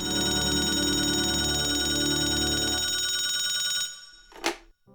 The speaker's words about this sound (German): Das Telefonat des Glücks wartet schon. Ähm, ich höre es schon klingeln.